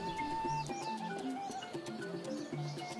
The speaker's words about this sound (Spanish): Huilotas de la costa de Guerrero, eh, aquí tenemos muchas palomas, sí, básicamente aves, aves, ¿no? Pero en el momento que tú pones un bosque, llegan.